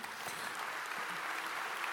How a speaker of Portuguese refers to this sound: Queria que você recebesse eles com um grande aplauso.